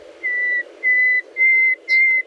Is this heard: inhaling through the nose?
no